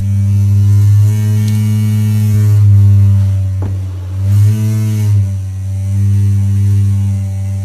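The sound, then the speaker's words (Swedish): Loose tape, put on a draughty window as insulation, vibrates in stormy wind, making a loud, continuous low buzzing drone with rich overtones that wavers and flutters in pitch now and then, heard alone without any talking. “Och så insåg jag plötsligt att det är tejp på fönstret och det blåser och det är det som har det här konstiga ljudet.”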